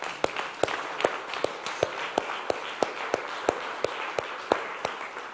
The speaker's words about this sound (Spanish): Denle otro aplauso a Dios, por favor.